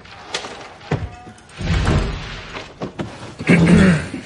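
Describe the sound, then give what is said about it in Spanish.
Tyrion shuts a book in annoyance with a dull thump, set among scattered soft knocks and a stretch of shuffling and rustling as the book is handled and pushed aside. “Tyrion cierra contrariado el libro, lo aparta.”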